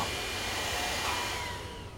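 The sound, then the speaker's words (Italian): A steady, loud motor drone with a broad hissing rush and a faint high whine as a mother runs a vacuum cleaner continuously to clean, with no voices. “Potresti smettere con questo aspirapolvere, ti scongiuro.”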